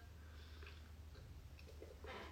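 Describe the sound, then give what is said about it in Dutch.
A quiet sip of water: soft wet mouth clicks and a small swallow, then an exhale at the end, over a low steady hum with no talking. “Oké, ik neem even een slokje water ondertussen.”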